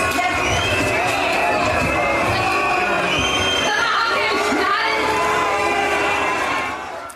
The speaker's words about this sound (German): Bei der zentralen Kundgebung am Brandenburger Tor wurde die regierende Bürgermeisterin Franziska Giffey ausgebuht